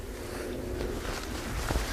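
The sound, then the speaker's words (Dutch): A few soft, irregular footsteps squelch and rustle as a person tries to step on the tussocks of wet marsh ground to avoid wet socks, heard against a steady outdoor background hiss, with no talking. “Ik probeer een beetje op de pollen te lopen. Dan krijg ik geen natte sokken.”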